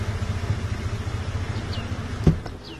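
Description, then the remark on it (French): A truck's engine rumbles low and steady as it pulls over to park on the way to a border crossing, slowing to a stop and ending with a short thump near the end. Faint high chirps sit in the background, and no one speaks. “Bon, laissez-moi trouver un endroit pour garer le camion.”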